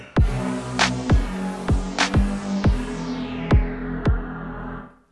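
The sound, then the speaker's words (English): A short swear-warning sound effect: a string of about seven sharp, punchy hits with quick downward sweeps over a sustained buzzy tone. It plays alone, fairly loud, and fades out at the end. “So, what you just heard was our swear warning, letting you guys know that if you've got kiddos running around, this episode does contain a little bit of it's light.”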